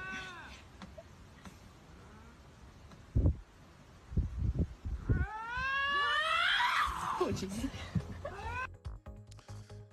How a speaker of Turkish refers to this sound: Bu da vaşak. Vaşakların kavga eden iki vaşağın sesleriydi.